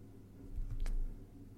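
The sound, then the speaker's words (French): A low airplane rumble swells and fades over about a second, with a brief soft rustle at its peak; no one speaks. “Attends, pardon, c'est quoi ce bruit Ah, c'était un avion.”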